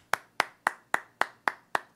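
Seven crisp hand claps in a steady, even rhythm, each a sharp, bright slap that decays quickly. No voices accompany them.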